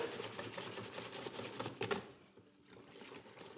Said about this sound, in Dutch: Dan ga ik dan ehm, zo goed mogelijk proberen te mengen. Met een garde aan het pakken. Met een garde. Ja. Roeren.